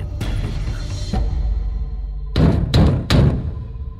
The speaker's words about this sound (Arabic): سمعت صوت طرق عنيفا على الباب فتحته فإذا برجال يهجمون علي كالذئاب